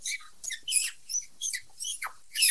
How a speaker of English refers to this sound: kind of sound like a field mouse